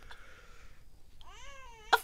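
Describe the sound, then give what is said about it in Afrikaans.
A baby in a home makes soft, drawn-out cooing and whimpering sounds that rise and fall, then gives a short, sharp cough-like burst at the end. “So, maar jy raas. 'n Baba. Jy het 'n baba.”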